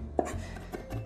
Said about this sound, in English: but if you just kind of run your knife through the pile on your cutting board i don't know maybe like three four full passes five six whatever floats your boat you're going to be okay